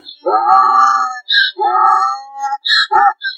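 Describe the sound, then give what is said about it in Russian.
A mule, the offspring of a mare and a donkey, brays loudly with harsh, strained calls that alternate between a high squeal and a lower honk in a rough, see-sawing rhythm, with no talking over it. “вот эти чудесные, странные, пристранные звуки, конечно же, издает мул”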